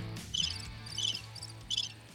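Crickets chirp in short, evenly spaced bursts of high trills, fairly soft, over a low steady hum, with no voices.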